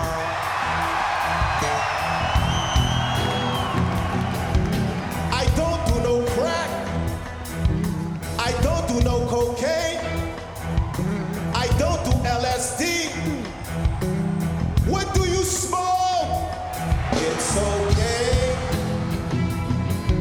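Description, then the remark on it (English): A large audience cheers and whoops loudly and continuously for about twenty seconds in response to someone shouting that it's okay to smoke marijuana, a dense wall of yells and shouts with no break or quiet moment. “so so the thing is is that unfortunately the crowd tactic of just yelling who here smokes weed and like getting a great response that hasn't died down at all.”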